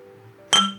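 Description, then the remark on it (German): A single bright, crisp clink of glasses touching in a toast, with a ringing tone that lingers and fades over a fraction of a second after a quiet low hum. “Ich habe fast nichts mehr drin, aber der letzte Schluck gebührt dir.”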